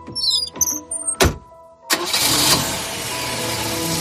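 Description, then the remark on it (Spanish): The engine of the car John drove cranks with a whirring starter, pauses briefly, then catches and roars into a steady, loud idle that continues. No one speaks. “Mientras John conducía, su hijo adoptivo Lee, escondido en la parte de atrás, iba disparando contra víctimas anónimas, dejando a su paso un reguero de sangre y de muerte.”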